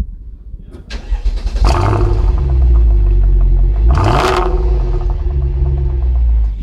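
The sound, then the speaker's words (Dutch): The big engine of a limousine over 5 metres long, with four large exhaust pipes under its rear bumper, cranks and catches, then settles into a deep, rumbling idle before a sharp rev swells and falls back. Loud, with no voices. “Onder de achterbumper van deze, ja, inderdaad ruim 5 meter lange limousine steken vier grote uitlaatpijpen onder die bumper vandaan.”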